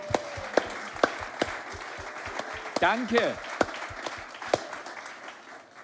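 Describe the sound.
Audience applause given to God: many hands clapping in a steady, moderately loud patter for several seconds, with a brief spoken word from one person partway through before the clapping tapers off.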